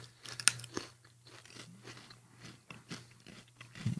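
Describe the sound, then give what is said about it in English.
Crunching of spicy barbecue-flavoured potato chips: one sharp, loud bite, then a steady run of softer chewing crunches, with a faint low hum underneath and no talking. “No, oh, it tastes like a barbecue chip with a, a spicy after.”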